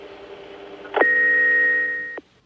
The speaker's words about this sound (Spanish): En su casa de París solo quedó su contestador. Julio Cortázar n'est pas là pour l'instant. Veuillez laisser votre message après avoir entendu le signal sonore. Merci.